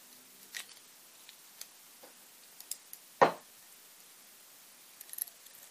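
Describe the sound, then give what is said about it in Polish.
A corkscrew twisting into the cork of a wine bottle being opened, a regional wine from Condrieu by producer Ogier: scattered small metallic clicks and faint creaks, with one sharper, louder click midway, and no talking. “Kręcamy się w korek.”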